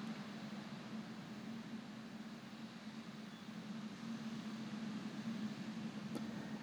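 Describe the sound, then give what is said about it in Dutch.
A steady, muffled roar of storm wind from outdoors, faint and continuous with a low droning rumble, swelling slightly toward the end. No one speaks. “En misschien hoor je geruis op de achtergrond. Het stormt buiten.”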